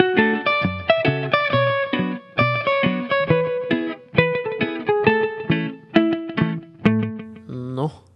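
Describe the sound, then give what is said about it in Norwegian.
A short musical bumper jingle plays on its own: punchy, rhythmic synth chords with bright harmonics, repeating in quick bursts for several seconds before ending with a rising flourish. “Nå tar vi en liten bumper, og så kommer”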